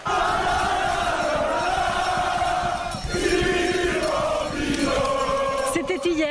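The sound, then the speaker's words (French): At the Tour of Lombardy in Bergamo, Italy, a dense crowd of supporters at the foot of the Groupama FDJ team bus chants a song together, voices loud. French cyclist Thibaut Pinot leads them through a megaphone in a rough amplified voice over the continuous roar. “Le coureur français mégaphone à la main devant des supporters en transe agglutinés au pied du bus de son équipe Groupama FDJ a repris la chanson du jour”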